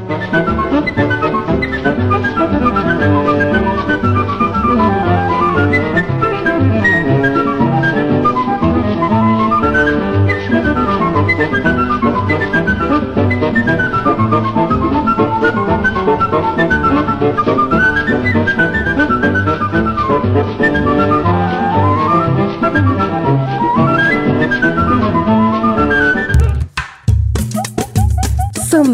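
An instrumental choro recording plays loudly and continuously, a bright, flute-like lead melody running quick phrases over a steady plucked accompaniment, until it cuts off abruptly near the end.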